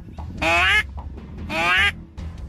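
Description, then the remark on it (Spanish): A few ducks quack at the dried-up La Boca dam in Nuevo León, where boats lie stranded on land: two loud, nasal, drawn-out calls about a second apart, with softer short quacks scattered between them over a low outdoor rumble. “Donde había agua llena de vida, solo quedan unos cuantos patos que se resisten a abandonar el que fue su hogar.”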